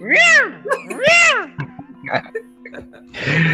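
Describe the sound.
A man's voice imitates a chainsaw starting: two loud rising-and-falling revving whines, then a few short sputtering bursts, and a rougher rumble at the end, alone.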